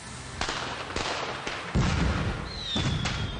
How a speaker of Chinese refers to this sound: 在我国大部分地区，初一放炮仗是必不可少的。家家户户早上开门的第一件事儿就是燃放红爆竹。